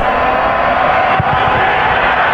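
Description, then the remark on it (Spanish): A dense, steady roar from a large stadium crowd cheering after Jordi Caicedo scores Católica's third goal, broad and continuous with scattered shouts and clapping mixed into the constant wash of noise. “aplaudan, eh, no dejen de aplaudir, rompanse la mano si es que quieren, eh, que se queden sin garganta los que gritan, eh, qué golazo hizo Jordi Caicedo.”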